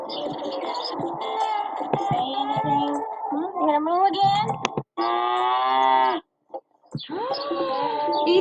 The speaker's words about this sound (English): a cow.